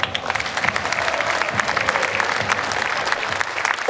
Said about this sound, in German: Deswegen können wir gerne nochmal klatschen.